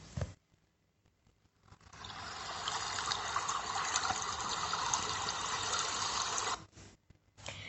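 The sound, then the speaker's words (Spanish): A brown-water river flowing along the shade of trees: its steady, bubbling rush swells in after a brief quiet start, flows evenly for several seconds at moderate loudness, then drops away abruptly; no voices. “El río de aguas marrones corría bordeando por la sombra de los árboles.”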